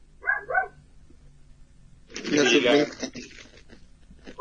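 A dog barks twice in quick succession, then lets out a longer, rough and raspy bark, with a short yelp cut off at the end.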